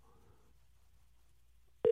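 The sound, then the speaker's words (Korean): A telephone ringing tone sounds faintly for about half a second, a steady electronic pitch, then cuts off to near silence before an abrupt loud burst, like a call being picked up; a radio host is calling a listener. “전화 한번 받아주세요.”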